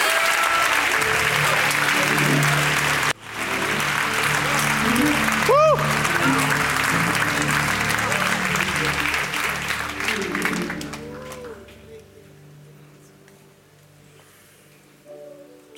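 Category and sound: crowd, audience applauding and praising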